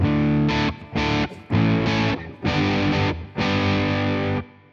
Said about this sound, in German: Ähm, das war jetzt ein, ein, Boss, ne? Das ist der Boss DS1, ja. DS1, genau. Und der klingt dann so.